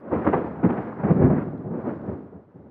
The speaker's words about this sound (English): A nasty storm had struck,